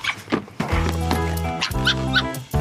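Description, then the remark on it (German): A young female fox character from a radio drama gives a few squeaky, yelping barks, likened to a dolphin, then two longer whining calls, fairly loud with no other sounds around them. “Aber ich spiele euch jetzt erstmal, ähm, damit wir alle dabei sind, erstmal die Füchsin aus dem Hörspiel vor.”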